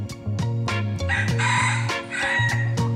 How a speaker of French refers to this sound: Et hier, les députés ont adopté une proposition de loi pour protéger les agriculteurs des plaintes pour nuisances olfactives ou sonores déposées par des citadins venus s'installer à la campagne. Les coqs pourront continuer à chanter.